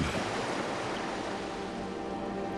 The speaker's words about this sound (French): Nous voulons crier un appel au secours, mais notre voix se perd dans le bruit de la mer.